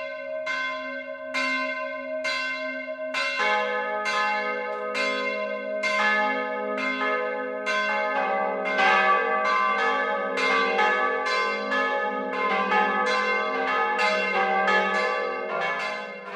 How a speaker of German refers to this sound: Das vierstimmige Geläut von St. Josef in Rappenbügel vermischt sich mit dem Rauschen der nahegelegenen Autobahnhof Regensburg.